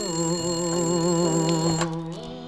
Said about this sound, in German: Zweite Szene. Theodor Meteors Arbeitszimmer. Das Telefon klingelt.